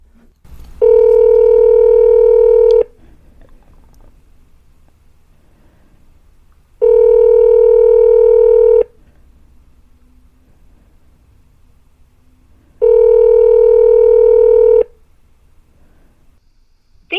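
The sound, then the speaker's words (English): A telephone call to a Waffle House restaurant in Lake Charles rings on the line three times. Each steady two-second ring is followed by a pause of about four seconds, with faint line hiss between rings and no voices. “Uh, just to make sure, I tried calling one or two of the Lake Charles waffle houses, and this is what I heard.”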